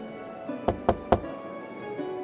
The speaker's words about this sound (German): Ja, äh, ich klopfe an der Tür.